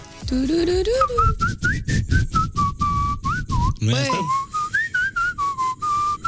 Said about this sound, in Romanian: vreunul din voi să fluiere pe ritm.